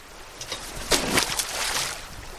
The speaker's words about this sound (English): Into the current, he hurls what looks like a wire milk crate with a plastic jug inside.